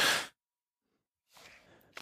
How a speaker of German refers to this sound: ich muss noch mal ganz husten.